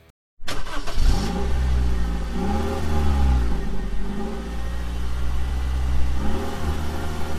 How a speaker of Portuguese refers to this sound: o efeito sonoro original do jogo, o som do carro e, e, som de batida